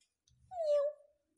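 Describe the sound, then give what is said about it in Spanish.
A single short cat meow, a clear tonal cry that slides downward in pitch, heard alone after a faint low rumble, with no voices around it. “Claro en un mollido. pero no se encontraba ningún gato alrededor.”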